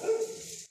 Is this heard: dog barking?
yes